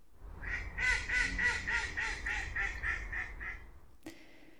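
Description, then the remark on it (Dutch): A mallard duck quacks in a fast run of about a dozen loud, raspy calls that gradually fade, followed by a short click near the end. “Want wie is nou eigenlijk die wilde eend?”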